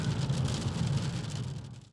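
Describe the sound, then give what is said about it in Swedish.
Heavy rain pours down in a steady, dense hiss with a low rumble underneath, continuous throughout, with no voices; the sky is bright despite the downpour. “Det är ju fan helt ljust här på himlen och ändå är det bara ösregn här.”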